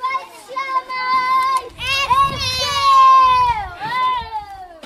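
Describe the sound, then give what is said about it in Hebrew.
Children's high-pitched voices call and shout over one another in long, sustained cries, loud, with a busy murmur of more kids playing outdoors in the yard of a Talmud Torah elementary school on a side street in the Geula neighbourhood of Jerusalem, on a very hot day in late July. “שמענו קולות של ילדים משחקים בחצר באחד הרחובות הצדדיים בשכונת גאולה בירושלים.”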